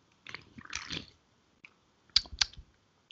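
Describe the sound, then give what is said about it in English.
Sips from a free sample of Geese Wiser beer: a soft, wet slurping stretch followed after a pause by two sharp swallowing clicks, heard alone with no talking. “I'm actually sipping on the free sample as we speak.”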